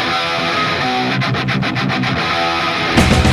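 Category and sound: punk rock song playing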